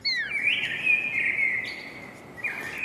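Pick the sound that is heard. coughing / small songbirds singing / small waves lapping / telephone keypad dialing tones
small songbirds singing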